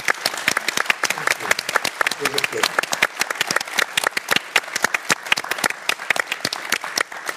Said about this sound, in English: So we're very honored you are here, and we'll all give you a big applause for that.